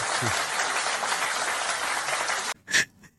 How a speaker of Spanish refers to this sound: Una ovación, qué menos.